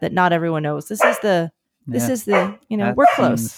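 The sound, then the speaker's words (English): A puppy in a kitchen, wanting out, barks and whimpers in short, high bursts in the background while people talk over it, the yelps coming in brief clusters between pauses. “She's decided she wants out of the kitchen”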